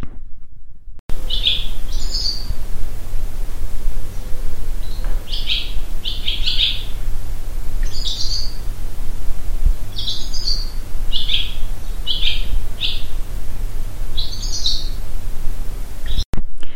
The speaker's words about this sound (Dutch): Dat zijn de dus zwaluwen in onze schuur.